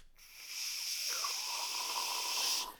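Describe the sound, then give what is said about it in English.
A person imitates with their voice the harsh, steady hiss of an overheating car battery about to explode, a sustained breathy 'ssss' lasting a couple of seconds, as if venting pressure, then cutting off abruptly. “So then I hear it start going like this.”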